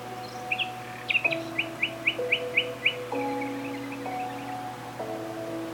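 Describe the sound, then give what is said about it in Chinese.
In a relaxation soundscape, a bird chirps a quick, evenly spaced run of about ten high tweets, then quieter calls follow, with insects calling, all over a steady hum of sustained, shifting low tones. “随着虫鸣鸟叫声，随着你的每一次呼吸，”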